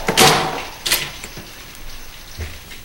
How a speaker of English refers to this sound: front door is open.